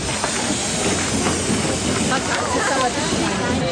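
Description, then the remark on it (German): A steam train hisses loudly and steadily as it pulls into a station in Munich, with a constant rush of steam, faint rail clatter, and indistinct voices mixed into the noise. “Und ja, dann sitzt sie im Zug, dann kommt sie in München an, wird von ihrem Bruder abgeholt und es sieht halt so alles aus wie 1942, 43.”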